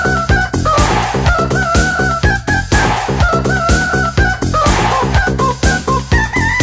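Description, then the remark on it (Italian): Loud rooster crowing and clucking calls run continuously over a steady, bouncy musical beat, with the rhythmic pulses repeating throughout. “Il gallo, poi mi raccomando, essere più chiari, eh, perché anche il testo.”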